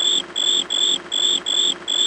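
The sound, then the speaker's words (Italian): A shrill, buzzing telephone ringer of a Grillo telephone, housed in a shaped plastic plug at the end of the phone cable, trills in quick, evenly spaced pulses, about six bursts in two seconds, sounding much like a chirping cricket, fairly loud with no voices. “Il cavo del telefono terminava con una presa in plastica sagomata, all'interno della quale era collocata la suoneria del caratteristico ronzio.”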